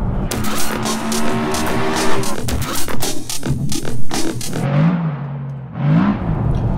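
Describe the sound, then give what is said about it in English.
A four-cylinder turbo diesel car engine, mated to an 8-speed automatic, turns over and runs, its steady, refined rumble without clatter climbing in pitch as it is revved twice near the end, with no talking. “It's an 8 speed automatic mated up to a four cylinder turbo diesel, which is pretty refined. You know, it doesn't clatter, you can hear it.”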